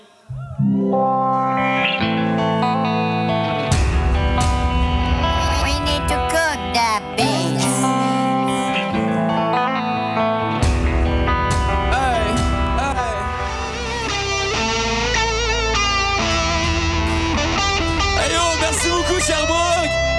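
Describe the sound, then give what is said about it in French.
A live band in Sherbrooke plays its last song of the evening, a new song due out March 3, at a steady, full volume, with sustained, effect-soaked chords and a melodic voice-like line weaving through, continuous from start to finish without pauses. “ok, c'est ma dernière chanson ce soir. On va jouer euh, une chanson qui sort le 3 mars.”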